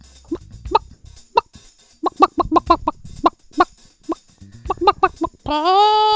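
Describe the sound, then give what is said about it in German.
A human voice imitates a hen clucking with a quick run of short, choppy, loud clucks, ending in one long drawn-out squawk. “Das, das ist auf jeden Fall das Huhn.”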